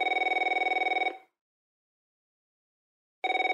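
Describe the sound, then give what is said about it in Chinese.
A phone line ringing on an outgoing call placed during a program to a remote notary public: a steady, buzzy ringback tone sounds for about a second, falls silent for two seconds, then starts again. No one speaks. “好，好，那我现在先拨一下电话吼。”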